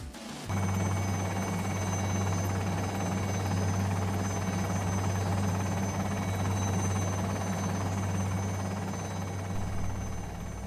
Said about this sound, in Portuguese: Vamos pegar o helicóptero e dar uma sobrevoada.